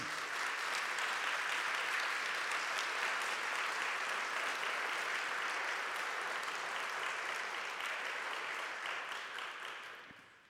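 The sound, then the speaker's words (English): A large crowd claps steadily in a dense, continuous wash of applause that holds strong for about ten seconds before tapering off at the end. No one speaks over it. “But I realize there are some who don't want to clap, and that's okay too.”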